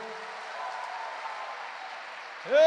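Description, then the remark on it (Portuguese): An audience applauds the Lord together in a dense, steady burst of clapping that holds evenly for a couple of seconds before a loud voice starts speaking over the end. “Então faz o seguinte: aplauda mais uma vez ao Senhor.”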